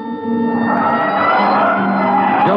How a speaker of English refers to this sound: Hit the siren. I'll get the light.